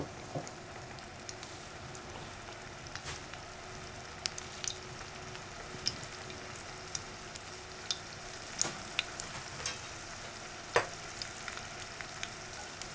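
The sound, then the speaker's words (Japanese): Garlic sizzles steadily in a hot frying pan over high heat, a continuous crackling hiss dotted with sharper pops and spits, fairly quiet, with no one speaking. “うん、音とともにまた香りが”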